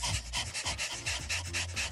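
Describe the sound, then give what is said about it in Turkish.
A person imitates a dog's panting with tongue out as a breathing exercise, with quick, rhythmic breathy huffs, about a dozen short bursts in steady succession, fairly loud with no talking. “İkinci egzersiz köpek nefesi. Böyle ah, çok koşmuş”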